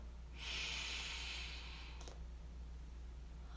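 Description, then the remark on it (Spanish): A single slow, deep breath drawn in during a guided breathing exercise, soft and airy, lasting over a second before fading into quiet; fairly quiet, with no talking. “Vamos a reducir la velocidad respirando despacio y profundo. Inhala.”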